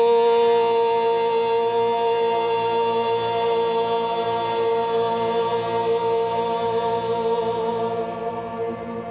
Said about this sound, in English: Take a big breath in, big breath out. I'm closing our mantra practice with the sound of Om, breathing in.